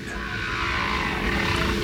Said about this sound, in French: comme je le supposais, le signal envoyé par la sonde n'est rien d'autre que le chant des baleines.